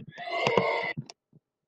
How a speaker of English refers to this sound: Is this a cow or a horse? It's a horse!